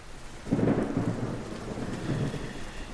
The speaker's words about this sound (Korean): 이 빗속에 누가 있겠어?